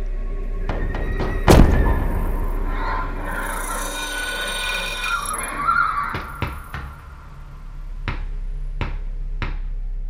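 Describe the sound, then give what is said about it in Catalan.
Irregular knocking thuds sound from within a wall, one heavy thump early on followed by scattered sharper knocks, some clustered in pairs, against a low steady hum with no talking. “I cada nit vaig sentir els cops, però no vaig poder descobrir d'on venien.”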